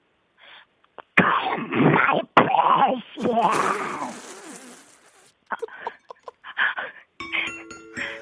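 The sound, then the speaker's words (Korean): A man voices a raspy, gurgling Gollum impression, with throaty croaks and hisses over several seconds, followed by a few short grunts and a bright electronic 'ding-dong-dang' chime ringing out at the end. “골룸을 어떻게 표현해야 따라서 딩동댕이 나오는데요.”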